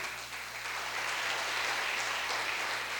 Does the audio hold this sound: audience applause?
yes